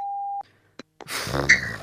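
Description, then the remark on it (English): A single steady electronic beep, loud, cuts off after a moment, followed by a couple of sharp clicks and then a burst of rustling, breathy noise. “and the beeping again.”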